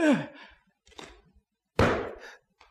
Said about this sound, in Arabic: إيه ده؟ الله دي حاجة غريبة ده مش صوت حجر الله دي حلقة حلق نحاس